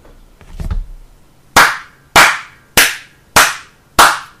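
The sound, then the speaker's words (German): Five sharp hand claps in a steady, evenly spaced rhythm, each a loud crisp snap with a quick decay, preceded by a brief soft rustle and no talking. “Wollen wir nicht bei fünfmal klatschen?”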